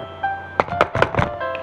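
About four hollow knocks on a door in a quick, steady rhythm, each a dull thud, over a faint sustained musical tone in the background; a cat knocks on the door again.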